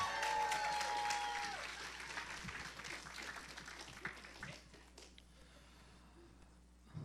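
An audience applauds, a dense patter of many hands clapping that is loudest at first and gradually thins out, with a brief whistle-like tone early and scattered cheers fading into quieter clapping.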